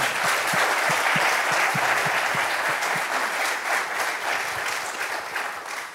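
A crowd applauds steadily for six seconds, a dense wash of many hands clapping at an even, fairly loud level that fades slightly toward the end.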